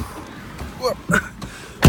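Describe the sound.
A single heavy car door thuds shut right at the end, loud, as someone gets into the car at midday, after a quiet stretch of ambient noise with a few faint, brief voice-like sounds.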